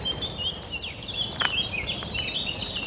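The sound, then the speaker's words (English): Blue tits chatter and call close by in the reed beds of the Avalon Marshes, Somerset Levels, on a slightly windy mid-April morning, with a fast run of bright, repeated high notes at first, then overlapping twittering calls continuing noisily over a faint background hum. “Some blue tits here, incredibly noisy, right in my ear.”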